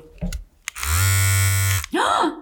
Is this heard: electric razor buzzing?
yes